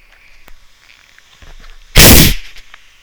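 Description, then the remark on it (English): A deliberately shaken fizzy drink bursts open with a sudden, very loud spraying hiss lasting about half a second, spraying over a microphone, after some quiet handling clicks and rustles. “That is the drink. I've just fizzed it up. I don't know why I did that. Uh, probably so you could hear it.”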